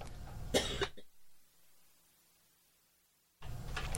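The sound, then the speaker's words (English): A person coughs: a harsh burst of coughing, a stretch of near silence, then another rough cough or throat-clearing at the end. No one speaks. “Excuse me, I got excited and I'm starting to cough.”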